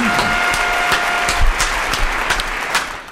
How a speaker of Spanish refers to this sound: Gracias, público. Acostumbrado al aplauso.